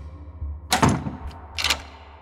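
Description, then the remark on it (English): A door opens and then shuts behind a man coming in: two short, clattering bursts about a second apart, over a low steady background hum. “Laura closed the door behind him and turned, arms folded.”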